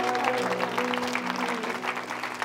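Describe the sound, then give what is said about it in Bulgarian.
An audience applauds God in dense, continuous clapping that stays fairly loud and even for the whole stretch, with steady held musical tones humming underneath. “Може ли да ръкопляскаме на Бог, ако вярваме?”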